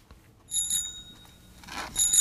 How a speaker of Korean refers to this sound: 음, 자전거 벨소리네요. 그죠? 네. 자전거 벨소리. 이게 계속 나올 거예요.